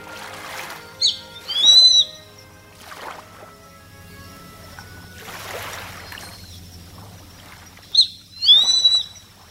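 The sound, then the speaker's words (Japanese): A grey-faced buzzard gives two clear, high whistled calls, each a short note rising into a longer drawn-out cry, several seconds apart, over soft rushing wind or surf and a low hum; heard before dawn at a lighthouse on a small island 40 minutes by ferry from Toba port. “暗いうちに宿を出て山道をおよそ1トル歩くと灯台に着きました聞こえてきたのは差し歯の鳴き声です”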